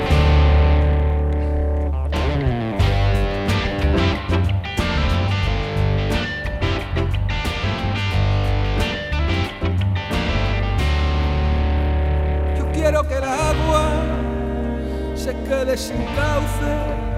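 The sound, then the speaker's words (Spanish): A loud rock intro led by heavily distorted electric guitar, with dense sustained chords and driving rhythm throughout, shifting into a brighter, busier passage near the end. No one speaks. It introduces a musical setting of Federico's poem 'La gacela de la terrible presencia'. “Vamos a escuchar esta que le has puesto una introducción un poco rockera, ¿no?”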